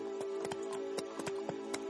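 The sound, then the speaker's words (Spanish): Hooves of horses being ridden clip-clop in a steady, even rhythm, each sharp knock distinct, over a constant low hum in the background. “Van montados a caballo, van Sally, Colson, Lorcan, montados junto a Taza.”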